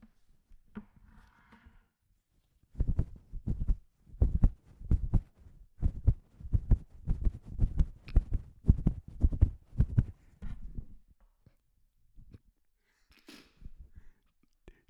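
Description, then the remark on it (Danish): A rapid, steady heartbeat-like thumping made as a foley sound effect by tugging and pulling on a sweater. The pulses are prominent and run for several seconds, then give way to faint rustling. “det var ikke mit hjerte, jeg stod med. Nej! Jeg hæv og flå i min sweater.”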